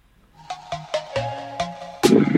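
An outgoing phone call rings out with a quick series of short electronic tones, clear, before an abrupt louder burst of noise cuts in at the end.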